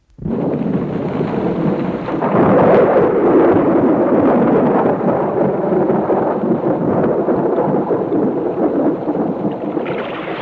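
A long, heavy roll of thunder rumbles loudly for about ten seconds, swelling after a sudden start and then sustaining a deep, booming growl with no one speaking.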